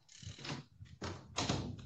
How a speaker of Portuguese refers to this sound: Desculpa, eu estava fechando a porta que estava debatendo.